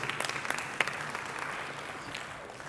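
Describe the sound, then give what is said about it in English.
An audience at a church service, standing, applauding steadily for a few seconds in praise of God, dense overlapping claps that are moderately loud and fade a little toward the end, with no clear voices standing out. “Yeah, that was a weak praise.”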